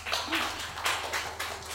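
A short burst of applause from a small group in a recording studio, a soft, continuous patter of hands clapping that swells and dips in uneven waves, fairly quiet and with no voices over it.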